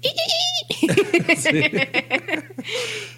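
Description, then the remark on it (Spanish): A person imitates a cat chattering at prey such as a fly while hunting: a short high-pitched whine, then a quick run of clipped, stuttering clicks and chirps, ending in a breathy hiss, fairly loud. “cuando cazan, o sea, cuando van a cazar, por ejemplo, que entra una mosca o algo y la ven, hacen un ruido bien curioso, ¿verdad?”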